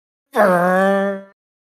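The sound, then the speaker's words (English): A voice imitates a motorcycle engine with one steady, buzzing vocal drone held for about a second, fairly loud and level in pitch, then cut off abruptly. “my motorcycle impression.”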